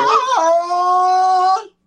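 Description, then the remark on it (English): A loud Tarzan yell by Carol Burnett: one long, full-throated cry that starts high, breaks abruptly down to a lower pitch, then holds that steady, ringing tone for over a second before cutting off. “you talking about somebody that could do a Tarzan yell out of out of this world It's Carol Burnett.”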